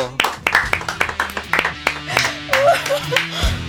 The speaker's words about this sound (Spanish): Un aplauso fuerte